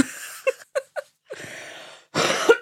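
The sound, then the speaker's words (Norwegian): A cough and a simultaneous fart: a few short, sharp bursts, then two longer, rough, breathy blasts, the last one loudest, with no talking. “Oi, jeg prompet!”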